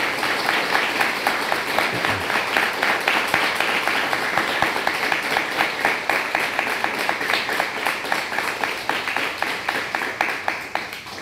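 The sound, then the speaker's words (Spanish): A studio audience at a Shabbat broadcast applauds steadily for about eleven seconds, dense overlapping claps at a consistent loudness that fade slightly toward the end, with no voices. “Aplausos para toda la...”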